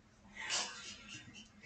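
human body sound, sneeze

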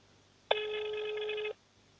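signal or alarm, telephone ringing

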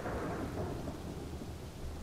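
nature, thunder rumbling

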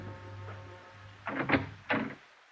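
household object, knocking on a door

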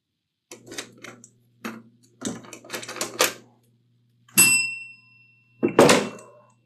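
household object, door opening and closing

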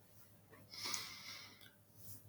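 human body sound, alternate nostril breathing

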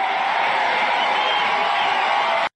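crowd, crowd cheering and whooping

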